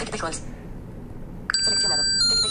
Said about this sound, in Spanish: Va a sonar el teléfono, ¿eh?